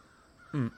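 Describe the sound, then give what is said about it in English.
A single harsh crow caw, short and raspy, rising out of quiet background noise with no voices, loud for its brief moment. “Crows? Are you scared of crows?”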